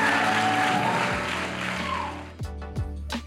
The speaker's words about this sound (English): Can we please give up one more round of applause for our communicators as they exit the platform?